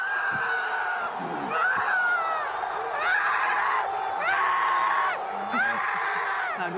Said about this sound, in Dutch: Maar ik wist niet dat Marokkaanse supporters zo passievol kunnen juichen.